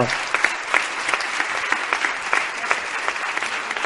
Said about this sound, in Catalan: Un aplaudiment brutal per tota la gent que hi ha aquí darrere i munta això.